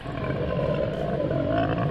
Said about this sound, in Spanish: Apreté los dientes al mismo tiempo que el sonido reverberaba contra el metal, dando paso a una serie de gruñidos y gruesos quejidos. Sonaba como algo absurdamente enorme.